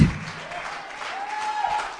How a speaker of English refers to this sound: Somebody give the Lord a hand clap of praise.